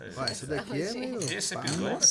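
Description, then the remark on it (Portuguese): Drinking glasses clink together in a toast, a single bright ring near the end, while several people talk animatedly over it. “cheers, cheers, cheers. Saúde, saúde.”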